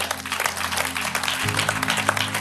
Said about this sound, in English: Oh, clap your hands for God.